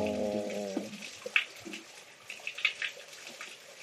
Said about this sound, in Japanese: うんこれ結構空間の音取るんでね、多分ね、水の音すっごいすると思う。ああ、なんか、人間が聞くと、水の音無視できる。うん、意識した時しか水の音聞こえないですけど、機械で撮るとすっごい水の音する。